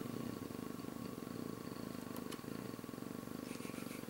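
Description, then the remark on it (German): A steady, rumbling purr-like drone with rapid fluttering pulses from a hung-up, glitching recording, continuous for the whole stretch, with no talking over it. “Bin oh, ich zu einer Katze geworden.”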